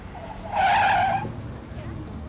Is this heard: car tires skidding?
yes